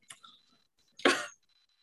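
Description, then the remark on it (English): Someone chews a piece of licorice: a couple of soft, wet mouth clicks, then a louder, brief smacking burst, with no talking. “Sorry, I'm chewing on a lick- piece of liquors.”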